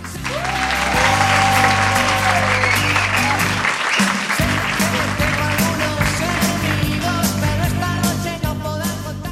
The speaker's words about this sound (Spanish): Despierta UMH se hace desde Molina de Segura, concretamente desde el IES Cañada de las Heras. Que se escuchen fuertes esos aplausos.